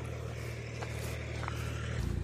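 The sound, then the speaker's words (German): A tractor loaded with liquid manure drives past, its engine a steady, low, humming rumble, holding level throughout and shifting slightly in pitch near the end, with a couple of faint clicks above it and no talking. “Wir machen mal ganz kurz auf Pause, weil hier so ein Traktor vorbeikommt.”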